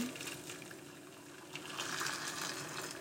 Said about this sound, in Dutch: ga even het water bij mijn eitjes doen ondertussen